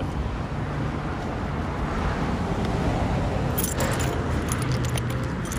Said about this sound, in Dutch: je dan met twee verschillende huissleutels.